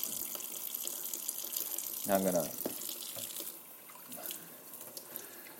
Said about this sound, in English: Now, I use the sprayer, whatever that's called, the water pick in the kitchen, over the kitchen sink, which always gets stuck. Okay. Spray the inside, of the uh, Vitamix blender container thing to get the rest of it out.